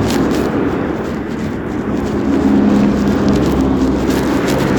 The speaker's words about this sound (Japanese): ちょっと大通り沿い人が、人が多いというか、車があって、音うるさいかもしれないんで、ちょっと、どっかで脇道されたいですね。